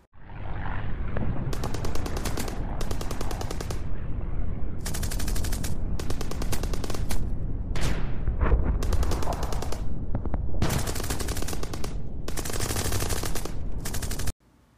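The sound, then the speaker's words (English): Dense World War I battlefield gunfire in France, with repeated bursts of rapid machine-gun fire over a constant low rumble of explosions, loud and continuous throughout, with no voices. “Here's a little French battlefield ambiance from World War I for your listening entertainment.”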